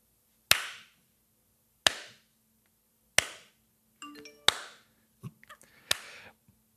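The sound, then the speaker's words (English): A short electronic notification chime signalling that a final lesson was passed rings out in the middle of a series of sharp, evenly spaced claps or knocks, with a few more brief tones trailing after. No one speaks. “uh, that was the notification that I passed.”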